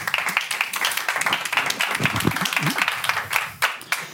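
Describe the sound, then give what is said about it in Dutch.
An audience at a Friday-afternoon talk programme applauds writer and poet Donald Niedekker, many hands clapping in a dense, crackling patter that holds at a fairly even loudness, with a few faint murmurs of voices mixed underneath. “Alvast voor de aanwezigen hier een hartelijk applaus voor Donald.”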